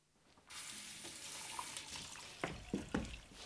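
Water pours steadily from a tap into a container, a broad continuous rush that starts abruptly and runs throughout, with a few clinks and splashes toward the end. Fairly loud, no talking.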